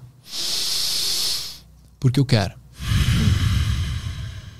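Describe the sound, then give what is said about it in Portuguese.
A long, audible breath drawn in, a brief spoken phrase, then a slow, breathy exhale lasting nearly two seconds: deliberate, consciously chosen breathing rather than automatic breathing. “com o poder da escolha poder da escolha de se eu vou respirar no automático, ou se, se eu vou deixar a respiração no automático, ou se eu vou escolher respirar”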